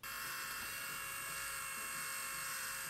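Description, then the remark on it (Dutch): A 3D printing pen runs with a steady, high-pitched motor whir, close and fairly loud, buzzing continuously without a break. No one speaks. “Ja, dat was een 3D-pen die David laatst testte in een video.”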